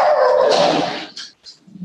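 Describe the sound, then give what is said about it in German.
A dog barks loudly, one long, drawn-out bark followed by two short, sharp yips, then quiet, with no one talking. “Wir haben, einen, wir haben einen weiteren Gast, einen Hund, habe ich gehört.”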